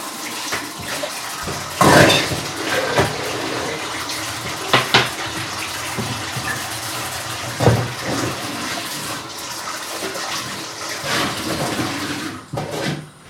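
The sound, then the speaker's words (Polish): A steady rush of water pouring, splashing and gurgling with a few louder surges, as hot cooking water is drained off boiled broccoli through a colander. No one speaks. “Za ten czas przygotuję sobie naczynie, do którego będę go odcedzać z wody.”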